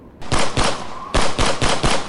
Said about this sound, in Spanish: Seis estruendosos balazos rompieron el silencio del histórico bar.